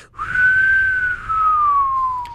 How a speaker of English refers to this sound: You heard it, the to- Roadrunner.